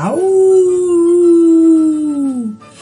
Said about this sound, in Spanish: Hay algunos monstruos que intentan darse ánimos cantando canciones de monstruos, pero están tan asustados que sus cantos parecen horribles aullidos.